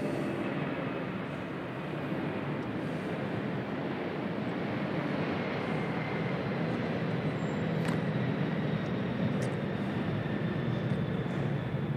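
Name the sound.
airplane flying overhead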